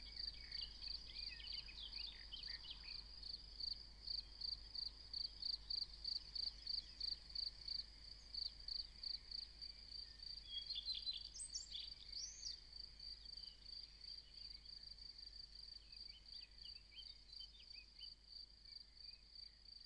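A grasshopper chirps in a steady, rapid pulsing rhythm, continuing throughout against a quiet outdoor background, with a few brief bird chirps partway through.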